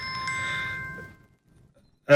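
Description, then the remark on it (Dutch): A phone's ringtone for an incoming call chimes with bright, bell-like tones that ring for about a second and fade away, followed by a quiet pause before a sudden loud burst at the very end. “oh, ik kreeg een, krijg een telefoontje binnen, maar dat, die zet ik even uit.”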